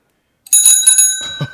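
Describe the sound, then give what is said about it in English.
A loud, bright hand bell rings with a quick series of rapid strikes, its metallic tones sustaining and shimmering after a moment of silence, then a few duller knocks near the end. “And I have a bell if I can learn how to use it.”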